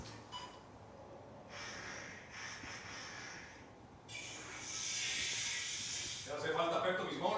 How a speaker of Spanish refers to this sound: Necesito, Carlos, un largo y sonido escatológico.